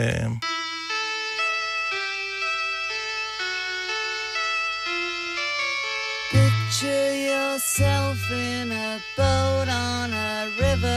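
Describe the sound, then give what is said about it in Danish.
A rock song recording, played as song number one in a musical candidate test for Danish politician Jakob Ellemann Jensen, with a male lead vocal over sustained keyboard-like tones, then a fuller band entrance with heavier bass and drums kicking in about halfway through, played at moderate loudness. “Øh, Jakob Ellemann Jensen, sang nummer et lyder sådan her.”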